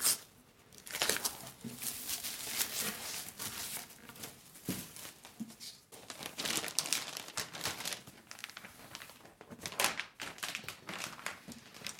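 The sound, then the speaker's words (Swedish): Continuous crinkling and rustling of striped wrapping paper as a Christmas present in a box is wrapped and tied with striped string, with irregular crackly bursts and brief pauses throughout, and no one speaking. “Julklappar är ju så himla mysigt att slå in tycker jag ett tag innan jul så att det inte blir den här stressen man känner dagarna innan där man bara börjar slå in fult och det blir bara jobbigt.”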